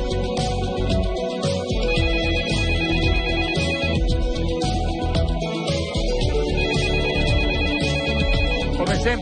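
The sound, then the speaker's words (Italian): A telephone rings loudly and steadily for several seconds, its bright, electronic ringtone repeating continuously and filling the space, with no one speaking over it. “all'improvviso arriva una telefonata.”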